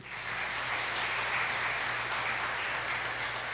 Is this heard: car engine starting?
no